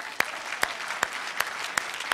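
An audience applauds a participant with a steady, dense wash of clapping, while a few sharper, louder claps stand out at a regular beat, roughly twice per second. No one speaks over it.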